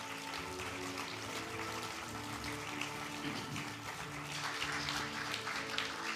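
A crowd claps steadily for several seconds, a dense, even patter of many hands filling the room, with a faint low hum of music beneath and no voices.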